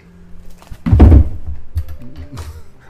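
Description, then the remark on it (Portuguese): A door is banged shut once by the wind with a heavy, low thud and a brief rattle, loud against a quiet background, then the resonance fades over the next second or so. “Olha o vento fazendo o caminho dele toda vez.”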